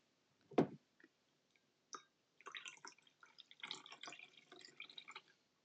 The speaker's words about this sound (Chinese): 好，就是一手拿着锅子，一手拿着你的法兰绒的滤网。 好，我们来把茶汤滤出来。